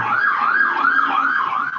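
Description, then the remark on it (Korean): An ambulance siren wails in steady rising-and-falling sweeps as the ambulance passes by, loud and continuous throughout, with a faint low rumble of traffic underneath and no voices. “오늘도 앰뷸런스가 지나가네요.”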